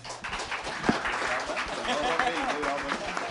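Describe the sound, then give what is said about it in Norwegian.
Steady applause from an audience for the panel, a dense crackle of many hands clapping at once that holds fairly loud and even throughout, with a few voices and cheers mixed in. “da syns jeg vi skal ta en applaus for panelet.”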